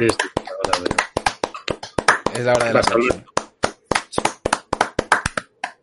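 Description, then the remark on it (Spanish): Sharp hand claps ring out in a quick, uneven stream for several seconds, loud and crisp, with a brief stretch of speech overlapping them partway through. “Aplauso.”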